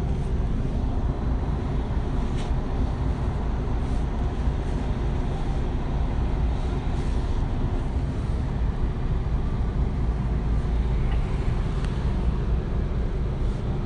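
A steady, low engine rumble and road noise fill the space from inside a moving city bus heading toward Bonn, constant and fairly loud throughout, with faint rattles and no one talking.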